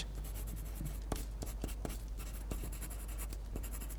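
A pencil tip scratches back and forth across paper in quick, dry strokes, with several sharper ticks as the lead taps and flicks, steady and fairly soft with no voices.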